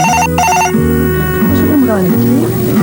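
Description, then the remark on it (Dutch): A red telephone's bell rings in a quick bright trill near the start, then gives way to a bouncy musical jingle that carries on to the end. “Als je een rode telefoon wilt in je nieuwe huis.”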